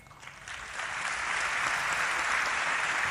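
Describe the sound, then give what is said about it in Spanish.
Applause from a crowd, including Cristina, at an event where Rafael Correa is speaking, a dense, steady wash of clapping that swells over the first second and then holds at full strength, with no voices over it. “El aplauso de Cristina.”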